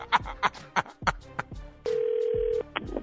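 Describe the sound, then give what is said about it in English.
A quick series of phone keypad beeps as a number is dialed, followed by a single steady, clear ringback tone of the call ringing out. “Call him back”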